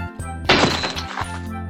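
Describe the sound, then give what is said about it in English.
A glass box falls to the ground when one of the men carrying it trips over a tree: a single loud crash, a bright shattering burst that rings out and fades over about a second, with soft music playing steadily underneath. “The glass box falls.”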